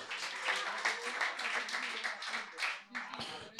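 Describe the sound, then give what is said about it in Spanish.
A few audience members clap steadily and briskly for a few seconds, fairly loud, welcoming a newcomer, with voices murmuring underneath, then the clapping thins out near the end. “Un aplauso al nuevo, un aplauso nuevo.”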